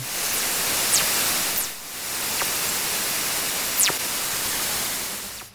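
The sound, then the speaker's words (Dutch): A fast radio burst recording: steady loud static hiss crossed by about four brief whistling chirps, each sweeping quickly downward in pitch, spaced irregularly with no voices. “Oké, Fast Radio. Het is kort, hè? Dus goed luisteren. FRB, komen ze.”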